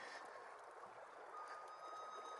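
Water flowing steadily through a qanat, a continuous soft rushing and trickling hiss that stays even throughout, with no voices.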